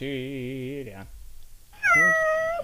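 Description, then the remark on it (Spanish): A cat meows twice, a drawn-out wavering cry followed after a short pause by a higher, strained meow, both loud with no talking. “Un gato. El gato.”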